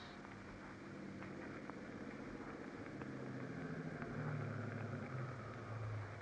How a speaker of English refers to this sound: At the gates of the estate, you jump from the car, wait in the darkness for the car coming down the road from the house.